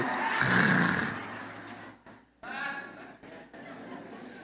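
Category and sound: vocal imitation, imitated snoring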